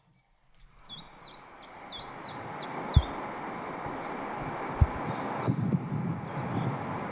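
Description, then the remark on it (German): Common chiffchaff song played from a YouTube video through a phone speaker held against the microphone: a steady series of short, high, evenly spaced notes over a loud hiss, with a couple of dull thumps from handling. “Der Zilpzalp”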